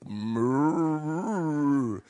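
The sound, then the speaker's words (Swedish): A person does a sustained, loud imitation of a cow mooing, one long drawn-out low moo with wavering pitch lasting about two seconds, heard alone. “Så han står och råmar som en kossa liksom.”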